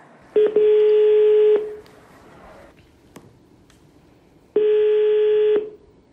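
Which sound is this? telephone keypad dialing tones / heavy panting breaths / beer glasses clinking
telephone keypad dialing tones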